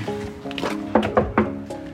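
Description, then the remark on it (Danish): Three quick knocks on a kitchen door, sharp and fairly loud, in an even rhythm, heard over a steady tonal background with no one speaking. “Og apropos høre, så hører du mig lige nu, der banker på køkkendøren.”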